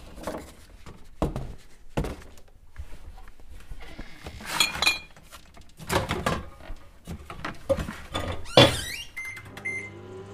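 A plastic Tupperware container of leftovers is handled with a series of thunks and clatters, then a microwave door shuts and the oven starts its low steady hum as it reheats the food for lunch, ending in a few electronic beeps.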